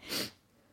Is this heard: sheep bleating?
no